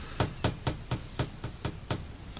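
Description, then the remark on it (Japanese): A quick series of about eight sharp raps on glass, evenly spaced like a steady knock on a window, fairly close and clear with no voices. “どうされました今誰か窓を叩かへんかった”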